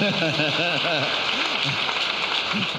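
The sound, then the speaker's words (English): A crowd at a church service claps for Jesus Christ steadily and densely for the whole few seconds, a continuous rattling wash of applause with several voices calling out over it. “Clap for Jesus Christ.”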